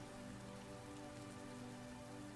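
Steady rain patters on a surface, a dense, even wash of countless small drops with a low hum beneath, continuous and fairly soft, with no voices.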